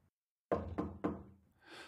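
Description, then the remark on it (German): Three firm knocks on a wooden door, evenly spaced, as someone knocks to bring the post, followed by a faint rustling or shuffling sound as the knocking stops. “Da klopfte Anna an der Tür und brachte der Magdalena wieder die Post.”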